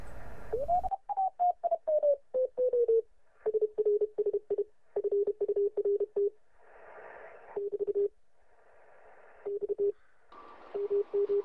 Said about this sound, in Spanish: ¿Qué, le pasa a la señal? ¿Nos, están interfiriendo?